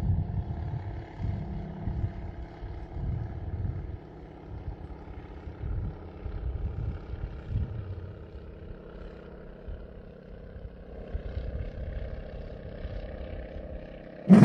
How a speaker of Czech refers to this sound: Čekáme chviličku, než to letadlo proletí.